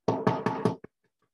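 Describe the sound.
Four loud, evenly spaced knocks in quick succession, then a softer fifth tap, with no talking, as someone mimics a knock on a door heard at twenty to eleven on a Friday night.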